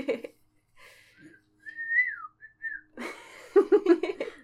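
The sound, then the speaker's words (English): A person whistles a short, gliding greeting-like phrase of a few notes, clear, followed by a burst of laughter. “Instead of screaming at each other, we can just communicate with whistles.”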